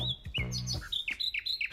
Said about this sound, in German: Diese Nachtigall, die ja ein unerhört vielfältiges Repertoire beherrscht, aber die haben auch immer mal so eine Folge von Tönen. So etwas. Und die können das auf verschiedenen Ebenen, Tonhöhen machen.